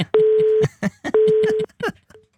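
Two steady, fairly loud telephone ringing tones, each about half a second long, sound in succession while people talk over and between them.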